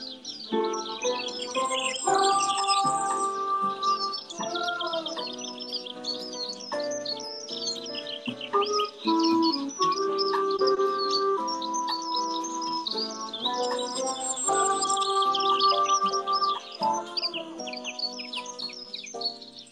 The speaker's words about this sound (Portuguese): Hoje eu fiz um remix ao vivo da nossa vinheta pássaros cantando. Os pássaros hoje estão indóceis